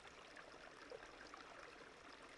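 A gentle stream flows steadily, its soft, continuous burble and light trickling holding an even level throughout with no voices present.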